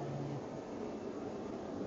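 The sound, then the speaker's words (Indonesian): A steady, broad roar of an airplane passing overhead, a continuous rushing drone with a low hum, holding even throughout with no voices. “kedengeran sih suara pesawat kencang banget sumpah sih”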